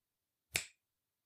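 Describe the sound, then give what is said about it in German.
A single crisp finger snap, a sharp bright click that fades quickly, heard alone with silence before and after. “Und wenn ich jetzt mit dem Finger schnippe, dann schnippe ich mit dem Finger.”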